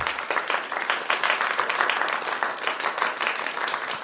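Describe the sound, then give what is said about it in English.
Sustained hand clapping from a small group for Jordan Turpin, a dense patter of many quick claps running steadily for several seconds at moderate loudness with no voices on top. “Jordan Turpin, you're getting the big clap.”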